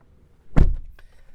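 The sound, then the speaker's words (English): A door is opened with a single heavy thunk that rings out briefly, followed by a faint click a moment later; no one speaks. “I had to open the door for a quick second.”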